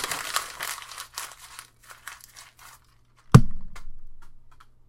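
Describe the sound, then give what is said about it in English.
A sheet of paper is torn up in a series of quick rasping bursts of ripping and crinkling, then a single sharp thump rings out and fades. No one speaks. “So this piece of paper that I've sit here and explained to you guys for 30 minutes, this is what I'm doing with it right now.”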